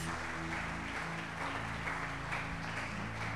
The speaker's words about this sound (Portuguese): Se Deus falou contigo, se você crê, que isso é para você nessa noite, dá uma salva de palmas ao Senhor Jesus.